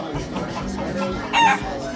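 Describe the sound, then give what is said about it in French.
Hens cluck steadily inside a studio, and a rooster's crow rings out loudly for a moment near the end, rising above the noisy flock. “c'est qui m'a fait rentrer ces poules plein de studio là”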